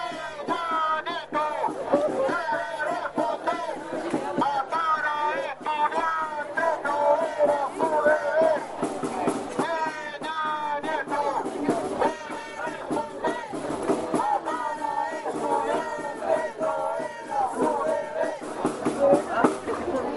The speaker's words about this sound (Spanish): de los gritos, de los cánticos que hubo en la movilización de apoyo a los 43 estudiantes mexicanos ayer en Valparaíso